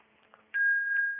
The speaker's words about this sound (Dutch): Het belletje blijft zo af en toe even zijn toon verspreiden. Om mij in het midden te houden. En om de omgeving af te scannen.